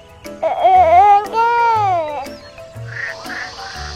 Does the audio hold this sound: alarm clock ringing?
no